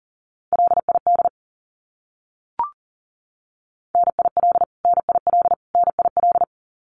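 Fast Morse code abbreviations at 40 wpm in a single steady mid-pitched tone, keyed in rapid dits and dahs: one short burst, a lone click, then three quick groups in a row.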